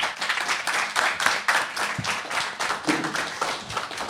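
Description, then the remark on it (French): A crowd applauds Monsieur Darmanin steadily at a live public broadcast of the Radio Brac show at the André Chédid media library in Tourcoing, with many hands clapping in a dense, continuous patter that stays fairly loud throughout. “On peut applaudir Monsieur Darmanin.”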